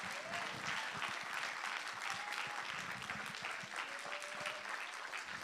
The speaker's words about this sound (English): Why don't you clap your hands to the Lord like He deserves it? Come on, come on, like He deserves to be praised.